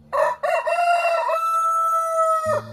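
A rooster lets out one loud, close crow, starting with a couple of short bursts before stretching into a long sustained cock-a-doodle-doo that cuts off abruptly. No voices accompany it.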